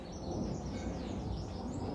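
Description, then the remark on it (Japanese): Birds sing faintly outdoors, their thin chirps and whistles half buried under a steady wash of blowing wind and low rumbling background noise. “あすげえ鳥鳴いてる聞こえる”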